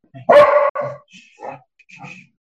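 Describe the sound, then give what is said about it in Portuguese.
A dog barks twice in quick succession, loud, then lets out a few softer, higher yips or whines trailing off over the next second. The dog is nervous because people are making noise in the street during a football game. “O pessoal tá fazendo zoada na rua, o cachorro fica nervoso.”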